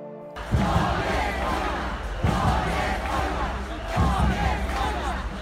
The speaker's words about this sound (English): This is the sound of anger and frustration. This is war, shouts the crowd gathered at the Liberty Square in Poznań in Midwest Poland.